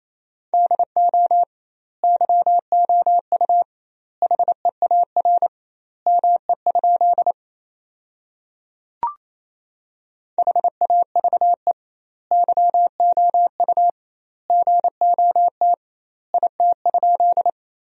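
A steady, mid-pitched Morse code tone keys out fast dots and dashes at 28 words per minute, sending sentences built from the top 300 words with doubled word spacing, in clusters separated by short pauses, with one faint click midway and no voices.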